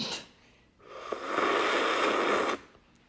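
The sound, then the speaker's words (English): A loud, drawn-out slurping sip of iced coffee, like air and liquid sucked through a straw, lasting almost two seconds, with a brief quieter sound just before it and no talking. “Why do you sip like that?”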